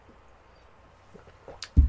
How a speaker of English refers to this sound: Sip of water.